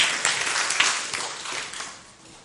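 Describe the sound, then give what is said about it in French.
A crowd applauds together for a woman coming forward to pray, a dense wash of many hands clapping that starts strong and gradually thins and fades over a couple of seconds, with no voices standing out. “On l'applaudit ensemble.”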